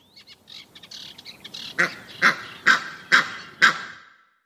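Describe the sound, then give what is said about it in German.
A series of five loud, evenly spaced honking calls from ducks or geese at a pond, captured during field recording, following a softer stretch of scattered background bird chatter. “Jetzt sind Vögel und Entenvögel nicht die einzigen Vögel oder die einzigen tierischen Begegnungen, die ich in meinen äh, drei Jahren Field Recording hatte.”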